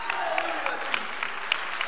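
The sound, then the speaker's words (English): An audience claps together as praise to God in a steady rhythm, sharp hand claps landing roughly three or four times a second over a softer wash of scattered clapping, with no clear speech. “If you believe it, give God a clap of praise like you, you believe it today.”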